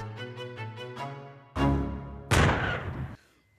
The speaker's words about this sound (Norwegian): Er, jeg liker bare å høre en lyn av skudd.